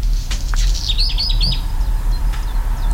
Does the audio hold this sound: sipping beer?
no